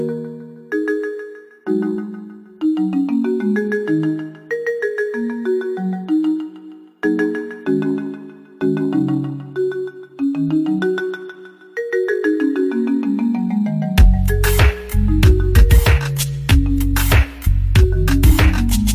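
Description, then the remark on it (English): A bright melodic phone ringtone plays on its own, stepping through a catchy repeating tune before swelling into a louder, fuller section with punchy beats for the last few seconds. “This is also my ringtone on my phone.”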